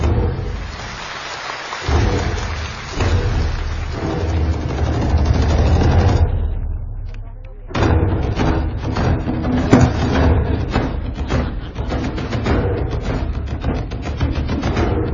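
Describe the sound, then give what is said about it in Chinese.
An audience applauds award winners on stage at an award ceremony, in a dense, crackling wash of clapping that thins briefly around the middle before swelling back to full strength. No one speaks over it. “再次把热烈的掌声献给他们，谢谢谢谢各位获奖者，祝贺你们。”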